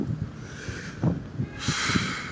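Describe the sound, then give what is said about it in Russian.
Wind buffets a microphone in uneven low rumbling gusts, then turns into a steadier, louder rushing hiss for the last stretch. No one speaks. “Ой, как ветрено.”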